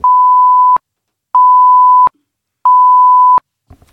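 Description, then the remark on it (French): Three long, steady electronic beeps at an even pace, like keys pressed on a keypad to enter a code. They are loud and clear, with short silent gaps and no voices. “Tapez votre code s'il vous plaît.”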